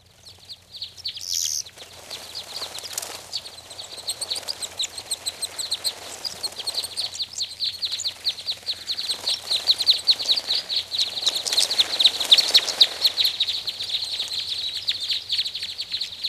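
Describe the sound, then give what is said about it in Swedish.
A flock of parrot crossbills calling, with several birds giving rapid, repeated high-pitched chips that overlap and build to a busier chatter midway before easing slightly. “Jag hittar inget lete på mindre kordsnäbb, men större kordsnäbb, den, den lyckades jag hitta i vår, i vår lilla databank, så mm.”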